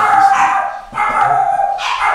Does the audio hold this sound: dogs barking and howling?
yes